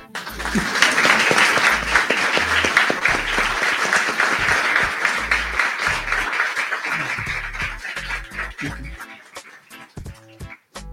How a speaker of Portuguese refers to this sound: Palmas.